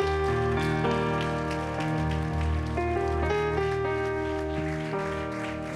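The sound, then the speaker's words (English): A church audience gives a hand clap of praise as a preacher comes up to preach, a dense, continuous patter of applause carried over sustained organ-like chords that shift every second or so. “Let's give the Lord a hand clap of praise as he comes.”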